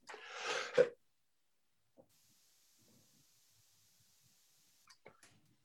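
cough

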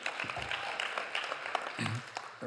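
audience clapping

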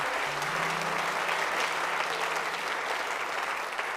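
audience clapping hands

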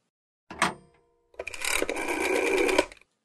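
telephone call ringing

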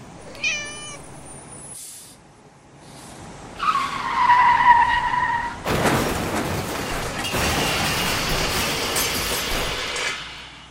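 car skidding and crashing

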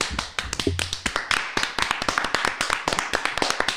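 applause

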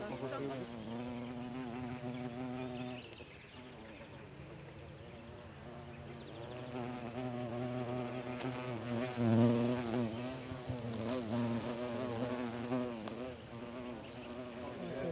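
insects buzzing

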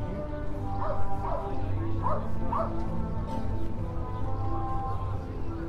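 dachshund barking

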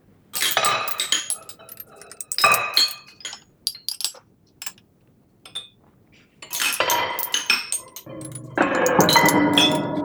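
cutlery clinking

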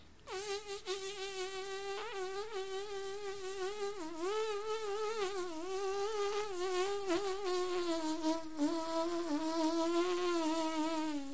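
mosquito buzzing

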